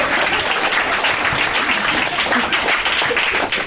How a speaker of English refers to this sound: Round of applause for that beautiful dumbass motherfucker.